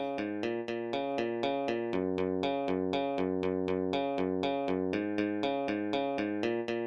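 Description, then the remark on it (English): Synthetic-sounding instrumental playback in Ultimate Guitar Pro tab software of a six-part arrangement: steady, evenly spaced plucked notes over a sustained low cello line, clear and moderately loud, with no voices. “So this is what it sounds like on for me. This is heaven on Ultimate Guitars Pro.”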